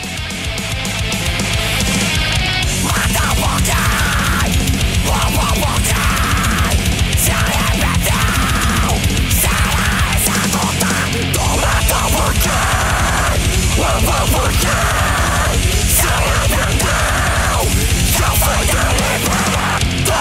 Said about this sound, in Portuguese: E agora vocês ficam com um pedacinho da música … da … do EP … de 2016